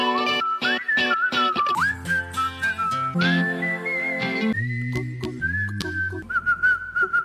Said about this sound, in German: es gibt ja so World Hits, wo jemand pfeift.